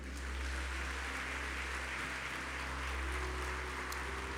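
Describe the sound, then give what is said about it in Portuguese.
A church audience in the city of Jacareí applauds Jesus during a Wednesday service, a dense wash of clapping that holds at an even level for several seconds with no voices on top. A low hum runs underneath. “Quem crê, aplauda Jesus.”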